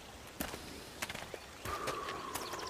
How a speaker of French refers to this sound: C'est une espèce d'oiseau que j'entends là